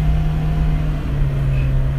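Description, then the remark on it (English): An old car's engine runs at high revs while being driven on a cold day in February 2017, its cold transmission stuck in low gear until it warms up: a loud, steady droning hum with a constant pitch, unbroken for the whole stretch, with no one speaking. “Uh, if you can hear my car, it's revving really high.”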